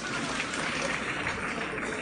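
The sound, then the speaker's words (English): A round of applause from a group who just recited the Ten Commandments, applauding themselves: a dense, steady patter of many hands clapping at once for about two seconds, fairly loud and even throughout with no voices standing out. “Can you just give yourself a round of applause?”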